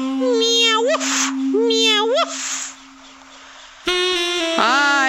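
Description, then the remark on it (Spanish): A human voice imitates a cat's meow three times as the answer of Frankenstein's pet in a told story, each a drawn-out, rising then falling mew, fairly loud, with a steady hum running underneath. “La frankin mascota respondió, ¡Miau!”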